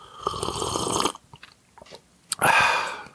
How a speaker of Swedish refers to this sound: Kanske du kan göra en slurp på riktigt. Gör en slurp Snyggt!